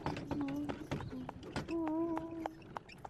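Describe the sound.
Horse hooves clip-clop in a steady rhythm as horses pull a carriage, crisp knocks repeating throughout, while a voice hums a slow, soothing melody over the top.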